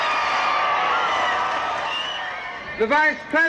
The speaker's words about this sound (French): Et voici le président. Le président uh, Kennedy est accompagné du député Jim Wright. Vous entendez la foule, les applaudissements. Il se dirige vers la 8e rue.